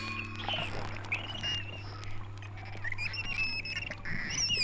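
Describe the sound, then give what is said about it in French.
High, sliding whistles and squeaky chirps from dolphins, with scattered clicks and creaks over a steady low hum, like an underwater recording. “Claquements de mâchoires, grincements et sifflements modulés, aboiements, cris de souris, rires moqueurs, grognements et grondements, craquements et bourdonnements.”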